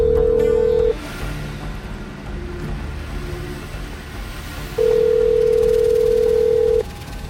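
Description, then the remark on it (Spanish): A steady telephone dial tone hums for about a second, then a few faint clicks and tones of a number being dialed to call novelist and historian Mariano Fernández Urresti, followed by a longer continuous tone over low background rumble. “Pues vamos a darle un toque.”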